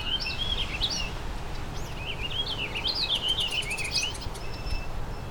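Warbling vireo songs: rich, rambling warbled phrases from two warbling vireos, with a Tennessee warbler also present, repeating over steady outdoor background noise with a few high thin notes mixed in.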